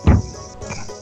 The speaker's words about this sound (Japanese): まあ、一応、2019年9月8日、えー、後ろでまだセミが鳴いてます。